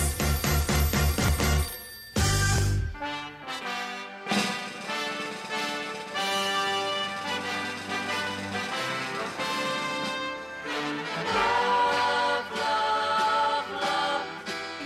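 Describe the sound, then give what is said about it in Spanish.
A brisk, pulsing electronic phone ring sounds for about two seconds at the start, then gives way to loud, busy instrumental music that fills the rest. No one speaks. “Agarre su teléfono, marque y comenzamos.”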